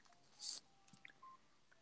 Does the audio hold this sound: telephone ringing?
yes